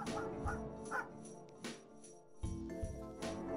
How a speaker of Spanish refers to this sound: Sin embargo, desde dentro de la casa, mi perro Brandon ladraba impaciente.